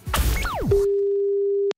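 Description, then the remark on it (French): A few gliding, descending whistles over a noisy start give way to a steady, single-pitched telephone line tone that holds for about a second and then cuts off abruptly. “Ça va de ce que les gens disent au bruit du téléphone.”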